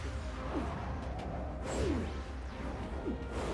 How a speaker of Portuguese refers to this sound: Uma das únicas cenas de soco desse desenho. Perderam a oportunidade de fazer pelo menos mais uma, né?